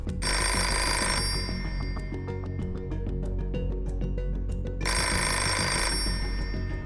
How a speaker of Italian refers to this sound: Sta di fatto però che nei mesi precedenti, quel febbraio 1988, il telefono di casa Vicky squilla ad ogni ora del giorno e della notte.